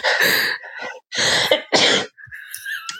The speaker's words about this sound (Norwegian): nei, nå må jeg nyse. Ja, atsjo. Ja.